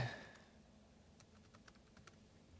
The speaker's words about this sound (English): We're just I'm just typing a quick message to you guys in the live chat.